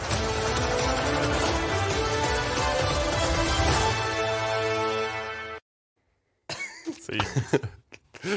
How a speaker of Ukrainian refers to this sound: На початку це був звук е, води, яка набирається у фарфорову раковину. Угу. Хоч не виключено, що це хтось сить у фарфорову раковину.